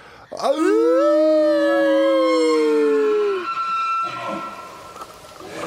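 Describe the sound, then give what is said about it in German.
A long, loud vocal imitation of a moose call, made as a farewell: a rising, drawn-out moaning bellow held for about three seconds before fading, followed by softer voices and breathy noise. “Und wir verabschieden uns auf Elchig.”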